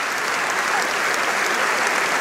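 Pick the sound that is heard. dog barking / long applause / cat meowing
long applause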